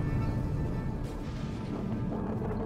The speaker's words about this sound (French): Sous les yeux horrifiés du patriarche, une étincelle puis une forte lumière précédèrent d'une demi-seconde la plus grande explosion nucléaire que le monde ait connue.